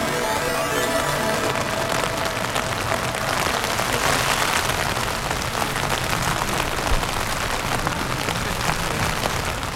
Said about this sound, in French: Il est 23h ce vendredi et il pleut à verse sous ma tente. Avec un ami, on vient juste de finir de planter les dernières sardines dans un champ boueux qui sert de camp improvisé. À côté du village de Vanzé, dans le marais Poitevin.